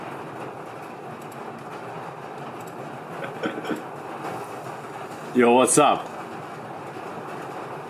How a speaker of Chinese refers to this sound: 雨声很大，只是没办法，会一直有雨声，对不对？